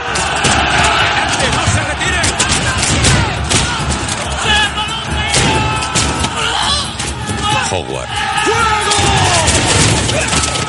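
A loud, chaotic ship battle: a volley of musket shots from English fusiliers at the French cracks out in sharp bursts over continuous shouting and clattering, dense and unbroken throughout.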